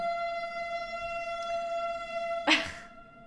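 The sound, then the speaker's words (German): A passing train's horn blares continuously, steady and tonal, layered with bright harmonics, then a short noisy burst cuts in near the end before it fades. It sounds loud, with no talking. “Oder ich hole nicht aus, weil anscheinend will der Zug das nicht. Der beschwert sich sogar der Zug, wenn wir nicht auf unsere Verdauung schauen.”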